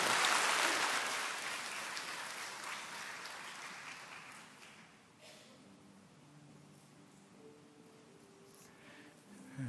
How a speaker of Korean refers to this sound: 우리 하나님께 감사의 박수 올려드립니다.